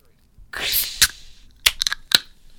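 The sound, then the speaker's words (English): A fizzy drink can, opened on a count of three, pops open with a sharp crack and a loud rush of hissing spray as it blows out, followed by a few more quick snapping clicks. “Yeah, I had a fizzy one. I had a bit of a blowout over here.”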